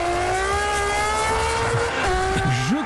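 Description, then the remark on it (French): A high-revving racing engine whines loudly past, its pitch sliding gradually downward as it speeds by, with a rising and falling rev at the end; no voices. “sauf à considérer que les copines de Marine Le Pen roulent à toute berzingue dans des bagnoles de course”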